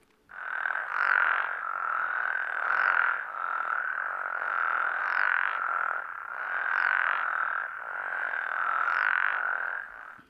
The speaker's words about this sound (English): And this is a spectrogram of what the frog chorusing looks like when it's in a very healthy pattern.